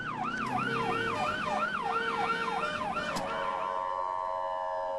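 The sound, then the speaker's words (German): An ambulance siren wails in a fast, repeating up-and-down sweep for about three seconds as the crew heads to an emergency call for a child who fell from a swing, then gives way to a steadier tone and the rumble of traffic. No one speaks. “Aber dann bekommt die Crew, die wir filmen dürfen, doch ihren ersten Alarmeinsatz.”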